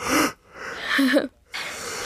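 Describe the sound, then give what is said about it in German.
A hearty, breathy yawn: a sharp intake of air, a drawn-out voiced groan that slides in pitch, then a soft exhale, with no one talking. “Ich werde jetzt mal ganz herzhaft gähnen.”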